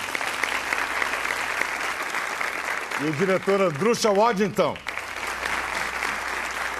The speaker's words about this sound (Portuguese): O roteirista Jorge Furtado, pode aplaudi-lo